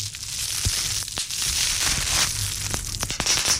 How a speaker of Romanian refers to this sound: Așa, toată lumea cunoaște această obsesie și foarte plăcută obsesie în care oamenii în loc să buție din picior uh, dau din degețele și împung în pernuțele astea pline cu aer și le sparg.